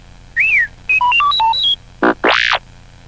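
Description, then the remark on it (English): R2-D2, the Star Wars droid, beeping as the page-turn cue of a Star Wars read-along story: a rising-falling whistle, a quick run of warbling beeps hopping between high and low pitches, then two brighter swooping squeals. Loud, with no talking. “You will know it is time to turn the page when you hear R2D2 beep, like this.”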